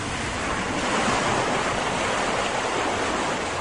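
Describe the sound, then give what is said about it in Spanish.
Strong wind roars over a stormy sea as waves strike a small boat, a dense, steady rushing hiss with churning surf beneath, holding loud and unbroken throughout with no voices. “y el viento fuerte soplaba y soplaba.”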